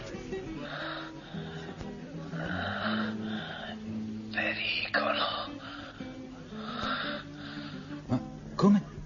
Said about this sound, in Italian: Al telefono una voce ansimante gli dice: Pronto? Pronto?